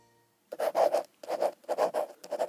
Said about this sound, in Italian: Mamma Bianca sospira e continua a scrivere la letterina.